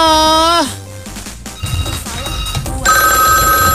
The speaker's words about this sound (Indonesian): Kita tunggu lagi. Ada yang telepon. Halo.